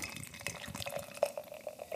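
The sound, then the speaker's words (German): Cloudy non-alcoholic beer being poured from a can into an IPA glass, a steady fizzy splashing with small glugs and bright plinks throughout, with no voices. “Ich gieße das mal in dieses tolle IPA-Glas.”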